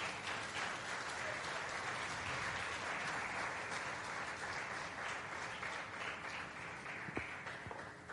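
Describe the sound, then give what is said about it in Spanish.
An audience claps steadily for several seconds, applauding the king at a pastor's call: a dense, continuous wash of many hands with no voices standing out, holding an even loudness throughout. “Démosle palmas al rey, hermano.”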